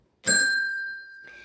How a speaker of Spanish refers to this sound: Sonó el timbre y ya que acabo no puedo evitar compartir con ustedes uno de los sonetos preferidos.